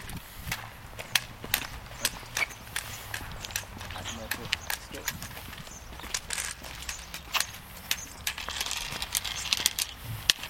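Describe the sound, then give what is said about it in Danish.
Footsteps walk steadily across a road, crisp, in an even rhythm with a few sharper clicks, over a faint low rumble of background noise. “Jeg skal krydse vejen øh, og dreje til højre og lytte efter trafikken. Der er vist ikke noget nu. Jeg prøver at gå.”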